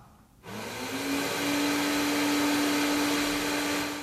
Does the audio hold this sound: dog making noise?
no